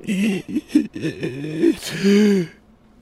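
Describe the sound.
A voice imitates a desperate, strained gasp for air, the first breath after being winded by landing chest-first on concrete: a series of choppy wheezing and groaning intakes ending in one long, drawn-out rasping breath, fairly loud.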